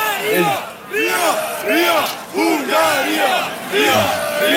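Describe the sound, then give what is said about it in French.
A large crowd of football supporters in a stadium in Budapest, Hungary, before the Hungary–France match, chants in unison a phrase meaning "I hate Bulgaria": rhythmic rising-and-falling vocal phrases repeated several times, loud and reverberant with a dense roar of many voices underneath. “Et là, vous l'entendez, je hais, je hais la Bulgarie.”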